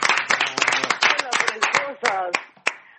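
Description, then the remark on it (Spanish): Applause from a group for actress Graciela Borges, who received the 2022 career award of the Fondo Nacional de las Artes: a dense patter of hand claps that thins out to a few scattered claps at the end, with voices speaking over it. “Aplauso para la Borges.”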